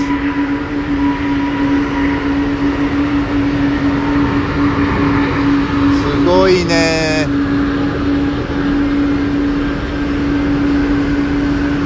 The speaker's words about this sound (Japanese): 離陸です